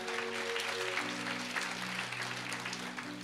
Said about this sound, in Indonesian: Boleh tepuk tangan bagi Tuhan saudara.